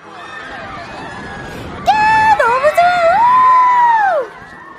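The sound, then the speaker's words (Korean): After a low crowd murmur, riders on a swinging pirate ship (Viking) ride at an amusement park erupt into loud, sustained high-pitched screams and whoops, a woman screaming with excitement and a man screaming in fear, for a couple of seconds before trailing off. “여자친구는 신이 나서 소리를 질렀지만 저는 공포의 괴성을 질렀습니다.”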